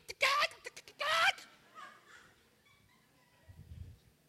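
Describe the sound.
A person imitates a hen with two loud, squawking cluck bursts, followed by a few fainter trailing clucks and a low rumble at the end.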